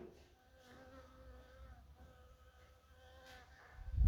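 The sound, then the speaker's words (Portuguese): A bee buzzes around a person's beard, a steady droning hum with shifting pitch as it hovers, ending with a brief low rumble of handling noise. “E tem uma abelha sobrevoando minha barba.”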